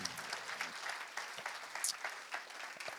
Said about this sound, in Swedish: Ska vi ge Stefan Svärd en applåd?